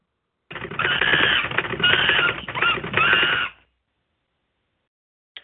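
A rapid burst of typewriter-style clatter, a sound effect introducing a news segment, lasts about three seconds in three quick spurts, with a shrill squeaky tone riding on top, then cuts off abruptly. No one speaks.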